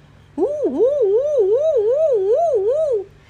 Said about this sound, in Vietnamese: xe cảnh sát nổ máy ngay lập tức xe bật đèn nhấp nháy và hụ còi báo động